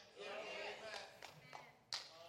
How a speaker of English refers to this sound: Thank you for that one clap. I appreciate it.